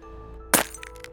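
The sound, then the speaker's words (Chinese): A single sharp crunch as someone steps on broken glass lying on the ground, a loud brittle crackle lasting a split second, followed by a few faint tinkling clicks as fragments settle. No voices. “我不小心踩到地上的碎玻璃”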